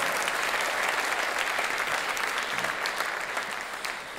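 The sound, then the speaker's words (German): Steady applause from a church audience in Wiesbaden for the service's moderator fills the whole stretch, a dense wash of many hands clapping at an even, sustained loudness with no voices standing out above it. “Er gibt ihm nochmal einen Applaus.”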